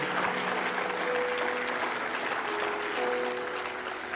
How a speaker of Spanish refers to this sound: Vamos, darle un fuerte aplauso al Señor esta mañana.